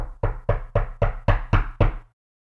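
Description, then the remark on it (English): Seven firm knocks rap on a wooden door in a quick, steady rhythm, fairly loud, then stop into silence. “As he sat there lost in thought, he heard a knock at the door.”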